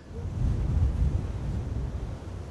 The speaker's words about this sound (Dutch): Je hoort het nu niet, want we staan dus in de beschutting van het stormwachtershuisje. Maar als ik even om de hoek ga staan, dan hoor je de wind waarschijnlijk aantrekken.